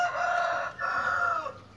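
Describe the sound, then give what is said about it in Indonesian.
A rooster crows loudly, a strained two-part call with a brief break in the middle, tapering off at the end; no one speaks. “ini teh udah siang itu ayam”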